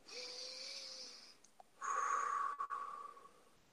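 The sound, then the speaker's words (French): A slow, drawn-out guided deep breath: a soft, airy inhale with a faint whistling tone, a brief pause, then a fuller, louder exhale that fades out. No one speaks. “alors, on va faire une respiration.”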